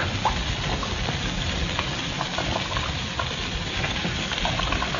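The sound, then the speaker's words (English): A steady sizzling hiss runs without a break, dotted with small crackles and pops, as a chemical called Formula X4, poured on the lock of a large wall safe, bubbles and fizzes, eating through the steel. No one speaks. “She's working, all right. Eating right through that steel.”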